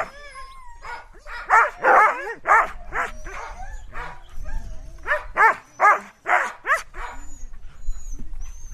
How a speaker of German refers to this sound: Um uns herum hört man nur die Hunde bellen und es ist stockdunkel.